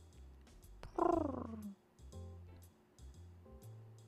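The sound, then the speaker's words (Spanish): Pigeons coo in low, throaty, repeated phrases from some distance away, with one louder, rising-and-falling call standing out early among the softer murmuring. “Seguí caminando mientras a lo lejos escuchaba ese ruido de palomas.”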